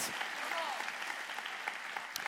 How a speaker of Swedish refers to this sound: Jesus är nyckeln, ja, ge Jesus en applåd.